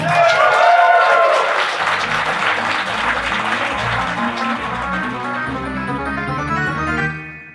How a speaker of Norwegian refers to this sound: Hold applausen deres gående og ønsk hjertelig velkommen til Level Up!